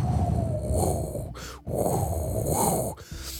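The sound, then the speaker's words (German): A voice imitates a slowly rising tornado wind: two long, rough, roaring breaths that swell and fade, with a brief pause between them, fairly loud. “wie wenn ein Tornado aufkommt so langsam.”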